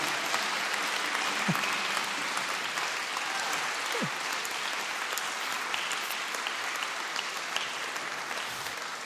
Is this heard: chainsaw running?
no